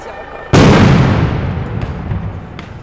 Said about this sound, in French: Grenade à effet combiné lacrymogène et sonore. Effet lacrymogène par 10 grammes de CS, fumée blanche